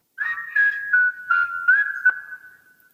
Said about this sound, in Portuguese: Eu ia te perguntar se esse assobio era uma coisa sintetizada ou não subiu de verdade. Subiu de verdade, eu só uhum. depois eu afinei, né, pra ficar no uhum. tom.